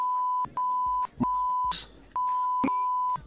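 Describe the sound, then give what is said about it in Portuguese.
A steady, high-pitched censor bleep runs through most of the moment in several long stretches, broken by brief gaps where clipped fragments of a voice slip through. “Vai, vai bipar, mas é isso.”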